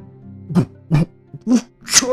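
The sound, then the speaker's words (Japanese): A voice acts out a great serpent (uwabami) coughing and sneezing as powder chokes its throat: four sharp bursts in quick succession, the last one a breathy, hissing sneeze. “上ばみは咳とくしゃみをしているうちに粉を喉に詰まらせてばったりと死んでしまったのです。”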